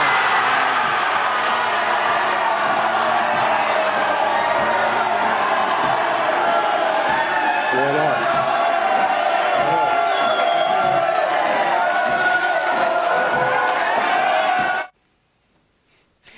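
A large crowd, the Milano Cortina delegation, erupts in sustained, loud cheering and shouting at the IOC announcement of the 2026 Winter Olympics host in Lausanne, Switzerland, a dense wall of excited voices with whoops and yells rising above it, continuing steadily for about fifteen seconds before cutting off abruptly.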